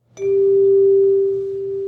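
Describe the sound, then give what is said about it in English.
A single hand chime is struck once in a bright steel-and-glass chemotherapy unit at the Center for Integrative Therapies at Boston's Dana Farber Cancer Institute. It sounds a clear, steady mid-pitched tone with faint higher overtones that rings on and fades only slightly. No voices are heard. “I had hand chimes”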